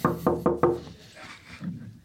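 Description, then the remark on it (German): Four quick knocks on the wooden dressing room door of Joachim Lambi, evenly spaced, followed by a brief quiet pause with faint background noise. “Wir klopfen mal.”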